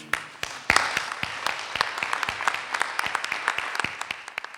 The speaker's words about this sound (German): Dann einen riesengroßen Applaus auch für alle, die sich aufgestellt haben.